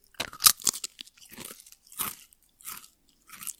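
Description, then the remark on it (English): Crisp crunching of a classic Lay's potato chip being bitten and chewed, several sharp bursts in an uneven rhythm with short pauses between bites, no talking. “This was a classic Lay's”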